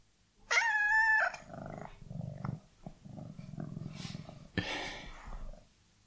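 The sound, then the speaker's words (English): A series of cat vocalizations, given as a translation of the phrase "I've left lots of hairs on the sofa" into cat language, opening with a loud, drawn-out high meow, followed by softer low chirps and murmurs, then a harsher, noisy burst near the end. No one speaks. “translate and then your phrase to hear cat language”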